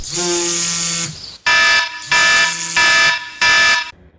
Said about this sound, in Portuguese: Talvez você seja mais um entre os que negociam minutos a mais com o despertador.